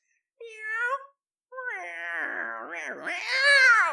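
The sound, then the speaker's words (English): A human voice imitates a cat, giving a short meow followed by a longer, wavering, drawn-out yowl that rises in pitch at the end, fairly loud. “Yeah, I can speak cat.”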